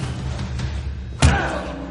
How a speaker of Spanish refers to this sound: El robusto le golpea. El alto le tira contra un espejo y le propina puñetazos en la cara.